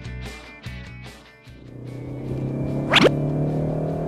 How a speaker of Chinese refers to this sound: 其实听起来这台1.5升发动机的声音还是挺好听的，它略微的有一点闷，听上去呢像更大排量发动机发出来的这种声音，这种感觉还是挺爽的。